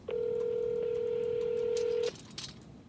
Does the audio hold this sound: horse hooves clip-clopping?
no